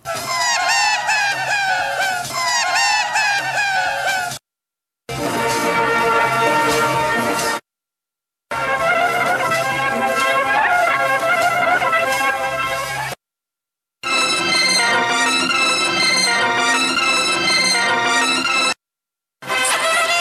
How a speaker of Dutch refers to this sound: Laten we even luisteren naar een aantal tape loops achter elkaar.